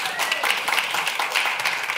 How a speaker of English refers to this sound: I don't know if we're clapping for Story City or for Burbank, but that's all right. We'll clap for both.